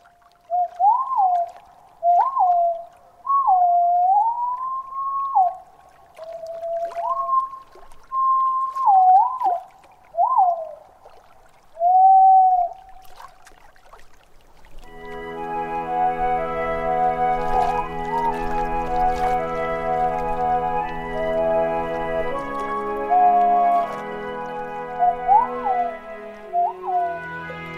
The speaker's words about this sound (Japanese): そんな想像を膨らませながらクリスマスに聞く青バトの声です